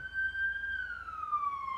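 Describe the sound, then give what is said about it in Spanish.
A police patrol car siren wails in a long, steady tone that slowly drops in pitch as it passes by, heard alone with faint low traffic rumble underneath. “Ah, sí fue patrulla.”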